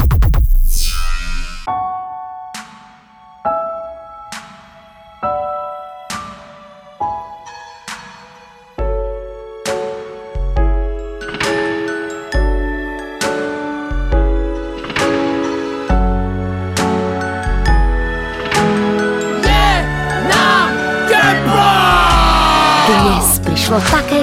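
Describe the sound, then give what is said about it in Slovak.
A short instrumental music interlude in a Rádio Paráda broadcast: ringing, struck notes fall in a steady rhythm, the accompaniment growing fuller and busier toward the end, with no voices. “A my po krátkej hudobnej prestávke pokračujeme v rozprávaní o čom inom ako o Domaši.”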